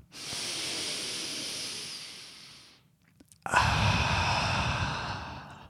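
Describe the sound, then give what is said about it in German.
A long, steady breath drawn in through the nose with an airy hiss, a brief pause, then a slow, breathy exhale through the mouth with a rougher, fuller rush of air, as a breathing exercise. No talking. “Musst du halt ganz tief durch die Nase einatmen, ungefähr so. Machen wir zusammen jetzt. Durch den Mund wieder ausatmen langsam.”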